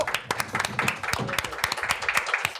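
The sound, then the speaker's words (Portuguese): A group of people applauding to welcome an invited guest as he is introduced, with dense, irregular hand claps overlapping in a steady burst of clapping that keeps going for a few seconds at a fairly strong level. “Uma salva de palmas.”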